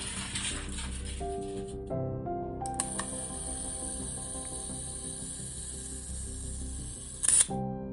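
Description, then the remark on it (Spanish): Camera shutter clicks and a flash firing stand out over a steady, humming tonal background, with a sharp click near the start and a louder burst of clicks near the end. “Flash.”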